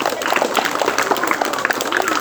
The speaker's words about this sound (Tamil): ஊர் பொதுமக்கள் எல்லாருக்கும் ஒரு வாழ்த்துக்கள் கை தட்டுங்கப்பா உற்சாகம்